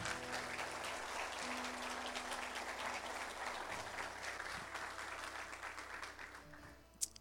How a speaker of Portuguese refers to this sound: Amém, igreja? Dê um aplauso ao Senhor Jesus.